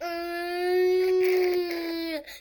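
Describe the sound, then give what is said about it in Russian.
A voice imitates a school lesson-change signal with one steady, buzzy hum held for about two seconds, fairly loud, dipping in pitch as it trails off. “как вам сообщают, что начался учебный день или начался урок, или закончился?”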